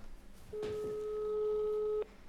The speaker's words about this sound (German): Lange Leitung nach Portugal. Ja. Es, es klingelt.